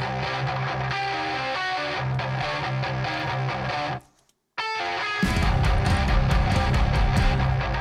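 A loud, dense metal track by a band with distorted guitars plays throughout. It cuts out for a brief half-second gap midway, then comes back even heavier and fuller, with no voices talking over it.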